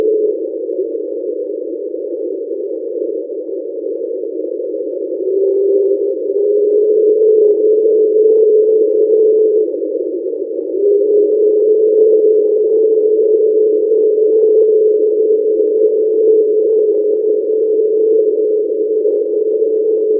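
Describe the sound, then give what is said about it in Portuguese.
A passing train captured by a seismic sensor and sped up, heard as a loud, steady droning hum with a whining tone that swells in partway through, continuous throughout, no voices. “Mas deu, deu para identificar que um barulho de um trem.”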